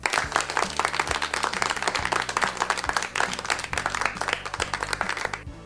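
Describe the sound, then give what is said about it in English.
A round of applause from a crowd, with many hands clapping densely and steadily for several seconds at a fairly loud level, no voices heard. “If you understood well our lesson about the introduction of sets, then you deserve a round of applause.”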